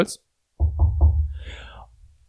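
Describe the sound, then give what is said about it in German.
Three quick knocks on a wooden surface for luck in a steady rhythm, each a solid thud, followed by a short lingering rumble as the sound fades. A brief fragment of a voice comes just before. “Zum Glück. Klopf auf”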